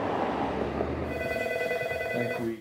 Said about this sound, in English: At Meds, the Canadian compounding pharmacy in Etobicoke, the phones keep ringing.